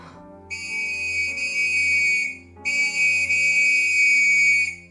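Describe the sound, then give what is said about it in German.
A police constable's whistle blown loudly in two long, piercing blasts, each about two seconds, with a short gap between them and no voices. “Auf das durchdringende Pfeifen des Wachtmeisters eilte ein Kollege herbei, der sich sogleich aufmachte, um Scotland Yard zu verständigen.”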